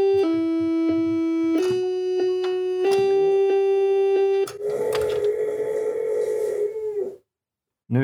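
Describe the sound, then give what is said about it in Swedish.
A dog howls along with sustained melodic tones, its drawn-out, wavering cry rising through the music for a few seconds before cutting off abruptly. “nu ylar hunden i bakgrunden här.”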